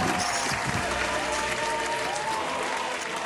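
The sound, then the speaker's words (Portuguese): A burst of steady applause welcoming a guest onto a program, many hands clapping in a dense, continuous wash that stays loud and even throughout without fading. “aqui é onde entram os aplausos.”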